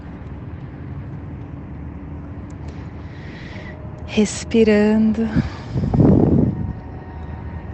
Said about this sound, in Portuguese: Só que tem uns carros passando aqui próximo mas tá tudo certo.